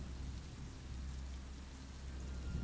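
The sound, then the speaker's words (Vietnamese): Heavy rain pours down steadily with a deep, continuous rumble of wind beneath it, filling the whole stretch at an even, moderate loudness with no voices. “Tiếng mưa gió gào thét ngày càng quá dị Tấp liều tạm bờ chỗ dương bà trú Cũng bị lật tung nhiều mảng”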